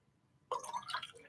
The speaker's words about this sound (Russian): Сейчас я воды попью и расскажу.